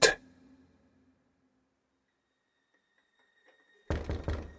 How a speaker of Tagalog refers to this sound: Madaling araw nang may kumatok sa pinto.